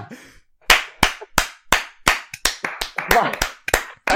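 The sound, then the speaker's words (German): About a dozen loud hand claps in a steady rhythm of clapping applause, a standing ovation, with faint voices murmuring underneath toward the end. “Standing Ovation.”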